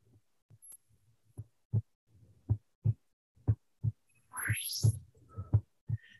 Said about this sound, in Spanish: Se supone que ese es el latido del corazón de los astronautas que van haciendo la grabación, mira.